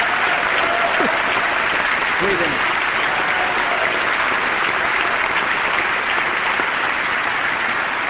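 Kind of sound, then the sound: crowd, applause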